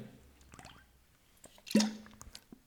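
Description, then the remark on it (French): Soft wet slurping and swallowing sounds as someone takes a small sip of a NutriPure bovine collagen drink after their second workout of the day, a few brief liquid squishes with a louder gulp near the end, no talking. “Je prends juste une petite gorgée de collagène, excusez-moi, je viens de finir euh, mon deuxième entraînement de la journée.”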